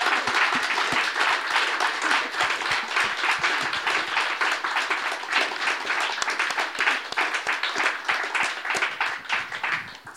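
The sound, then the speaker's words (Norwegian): Sustained audience applause for a panel at the close of a journal launch evening, many hands clapping in a dense, steady crackle that stays loud for about ten seconds before easing slightly at the end, with no talk over it. “De får en stor applaus.”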